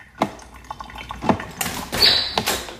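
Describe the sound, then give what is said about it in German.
A coffee machine, switched on first thing in the morning, gurgles and hisses as it brews, with irregular dripping and sputtering bursts and a sharp steamy hiss near the end; no talking. “Morgens wird als erstes die Kaffeemaschine angeschaltet.”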